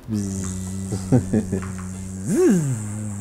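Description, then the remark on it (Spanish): A voice imitates a mosquito's whine: a sustained, nasal buzzing hum, wavering with a few pulses and rising into a swooping pitch bend near the end. “ah, zancudo. Sí. Mosquito.”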